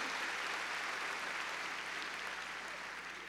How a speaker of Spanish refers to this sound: A ver, démosle palmas fuertes ahí en nuestro Señor.